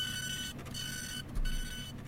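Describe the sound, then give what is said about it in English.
A fax machine whirs and chatters as it prints a page, its steady mechanical drone broken by brief pauses and tonal beeps, fairly loud with no voices. “there's a loud of a fax. And they pull a piece of paper out and look at it.”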